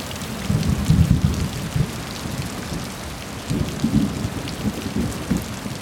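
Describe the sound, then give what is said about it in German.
Steady rain patters down on a boat as people settle in for the night, in a dense, continuous hiss, with low rumbling swells rising and fading like thunder. No voices, just the wash of rainfall. “bereiten das Boot für die Übernachtung vor, legen uns bald hin und lauschen dem Regen.”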